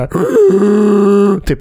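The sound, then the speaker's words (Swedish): A voice imitates the harsh growling cry of the sand people, one strained, sustained, wavering call lasting about a second, loud, followed by a brief throat-clearing noise. “sand people”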